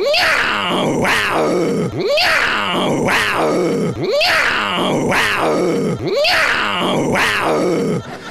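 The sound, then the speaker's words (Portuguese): One or two pumas growl loudly and harshly, about four rasping, drawn-out calls repeating at a steady rhythm of roughly two seconds each, with no talking. “Esse som é de uma ou duas onças pardas, puma com colo.”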